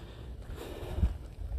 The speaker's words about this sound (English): I can hear boats on a lake. And I know it comes up against the border of a lake.